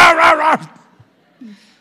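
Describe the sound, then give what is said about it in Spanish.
A dog called Firulais gives a loud, rough bark made of two quick bursts close together, then falls silent apart from a faint low sound near the end. “cuidado, vas a atacar al firulais. Venga, perro.”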